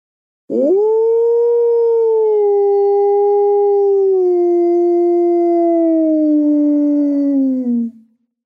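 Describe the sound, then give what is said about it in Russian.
A person imitates an ordinary wolf's howl: one long, loud, steady tone that swoops up at the start, holds for about seven seconds, then slowly sinks and fades out. No other sounds. “Вот обычный волк.”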